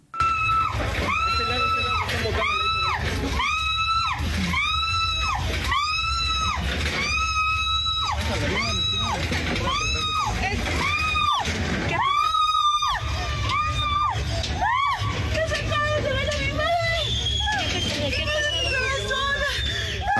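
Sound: crowd screaming and shouting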